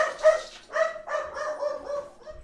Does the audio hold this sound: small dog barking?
yes